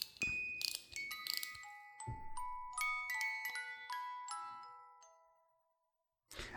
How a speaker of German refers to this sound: Und das ist so eine Spieluhr.